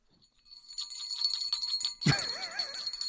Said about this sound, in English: I mean, that so sounds ridiculous. like the bell from from Polar Express. You know, it's doesn't like it? that single magical bell.